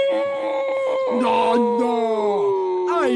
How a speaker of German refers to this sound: Ein braver. Du bist doch ein guter und braver Hund. Such den Hasen.